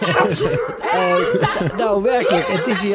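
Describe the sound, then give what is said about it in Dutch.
A large crowd of dogs barks and yips continuously in the background while a man laughs and talks close up over the noisy din. “Het is, er staan hier werkelijk honderden honden zo er geen duizend zijn die staan te wachten op een feestelijk feit.”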